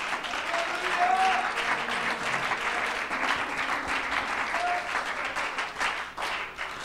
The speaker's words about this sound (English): Let's give the Lord, Lord a hand clap.